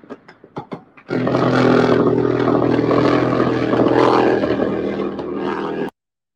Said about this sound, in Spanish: ahí están justamente esas imágenes del helicóptero que me estaban pidiendo. Esas son las imágenes del helicóptero que justamente estaba eh, abatiendo, o sea, estaba en combate, literalmente.